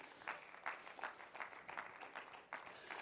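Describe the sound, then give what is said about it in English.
Light, scattered applause from a small audience during a sermon, a handful of hands clapping in an uneven patter that stays fairly soft and steady for a few seconds, with no voices over it. “I appreciate your very modest applause.”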